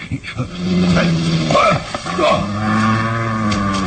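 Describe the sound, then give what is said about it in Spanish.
An injured, nervous dog growls low, a deep, rumbling snarl that rises in bursts and holds steady for several seconds, with a brief pause before it resumes. “Olvida que este maldito perro me obedece.”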